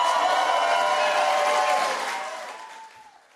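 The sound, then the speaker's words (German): Loud applause from a crowd as Donald Trump declares himself winner of the election on 4 November, a dense wash of clapping with a few sustained tones running through it, holding steady before gradually fading out over the last second or so. “Also bereits am 4. November unter tosendem Applaus hat er sich zum Sieger selber ernannt, das geht scheinbar.”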